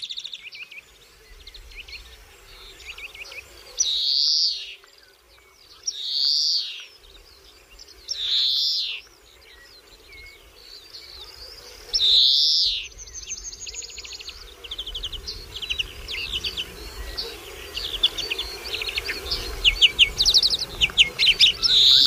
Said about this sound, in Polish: bardzo piękne głosy, charakterystyczne. Tak się zastanawiam, czy często słyszane u Państwa gdzieś tam w ogrodach na granicy pól i lasu? No sikorki, sikorki, wszelkie gatunki sikorek. No tutaj chyba wszystkie przylatują, cała gama sikorek,